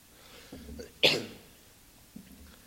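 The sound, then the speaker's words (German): A single sharp cough bursts out, loud and abrupt, with faint breathy murmurs before and after it and no clear speech. “Also ich werde mich jetzt nicht für jedes Husten entschuldigen, das wird wahrscheinlich noch öfter vorkommen.”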